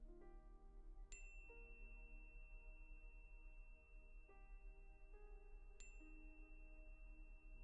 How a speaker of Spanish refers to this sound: Y con cada toque de la campana, tomar una respiración profunda.